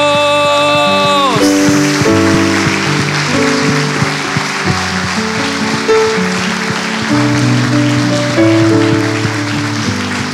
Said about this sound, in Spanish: Pónganse en pie, por favor. Vamos a darle un fuerte aplauso al Señor. Vamos a darle un fuerte aplauso al Señor. Aleluya. Vamos, vamos, vamos, denle un aplauso al Señor.